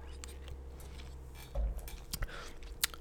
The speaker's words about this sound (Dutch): Ik neem nog even een slokje water, want veel bizarder dan deze wordt hij niet.